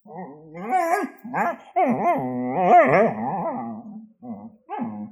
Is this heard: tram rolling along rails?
no